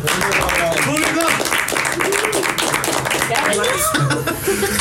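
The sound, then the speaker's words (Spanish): A crowd applauds loudly and steadily, dense clapping filling the whole stretch while voices, whoops and some laughter rise up through it. “Pues chicos, terminamos. Un fuerte aplauso.”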